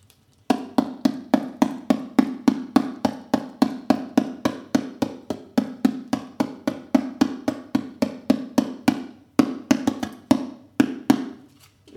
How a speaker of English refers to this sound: This is a paper cup taped to a cardboard tube in the manner of a goblet drum, such as a dumbek or a djembe. Dumbek being Middle Eastern drum and uh, djembe being African drum.